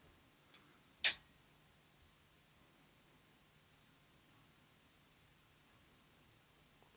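An old gramophone with a record on it starts up with a sharp click, preceded by a fainter tick, then settles into a quiet, steady surface hiss with a low hum underneath and no music yet.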